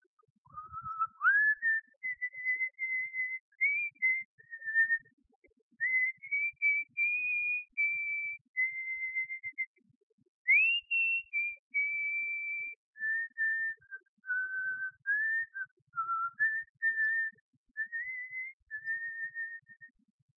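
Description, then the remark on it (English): A single person whistles the slow, steady melody of an old hymn, sustained clear notes rising and falling in phrases with brief pauses, fairly loud against a quiet background. “He flung himself on his knees and upon the mercy of God and his faith was soon multiplied by hearing someone whistle the melody of an old hymn.”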